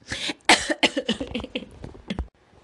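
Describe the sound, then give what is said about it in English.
A loud fit of coughing mixed with laughing, several harsh bursts in quick succession with breathy, laugh-like sounds, tapering off into a final short cough before silence. “Oh, sorry, I was coughing and laughing at the same time.”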